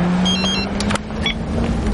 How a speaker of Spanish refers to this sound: Buddy se monta en el taxi y se despide de Dave con la mano.